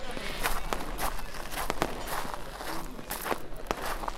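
Footsteps of a person walking away at a steady pace to ask the neighbours for a lighter, a series of crisp, evenly spaced steps over a continuous low background rumble, with no one speaking.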